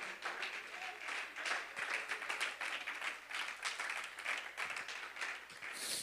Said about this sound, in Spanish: Alguien bendice la presencia de Dios y lo puede aplaudir con regocijo en esta mañana.